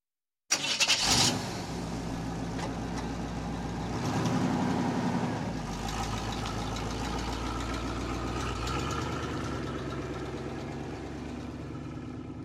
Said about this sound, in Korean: 엔진이 한동안 웅웅거리다가 기어가 찰칵 소리를 내더니 커다란 트럭이 움직이기 시작했다. 1단, 2단, 3단을 거쳐 높게 휭 하는 소리를 내며 속력을 얻은 트럭이 4단으로 올라섰다.